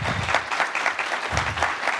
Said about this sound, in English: You guys can fill that in, so I think you get the applause.